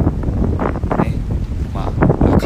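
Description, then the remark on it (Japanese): Loud, gusty wind buffets the microphone outdoors by the sea in Okinawa, near a beach, a constant low rumble with surging bursts throughout, and faint traces of a voice beneath it. “ということでね、海です。”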